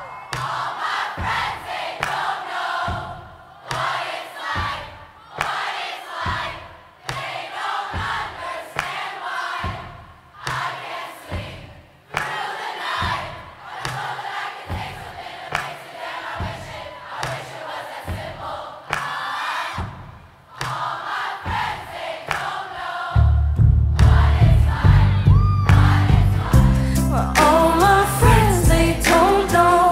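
A large crowd at a concert sings along to a chorus in unison in loud, rhythmic phrases separated by brief pauses, then a full band crashes in with heavy drums and bass near the end as the singing continues.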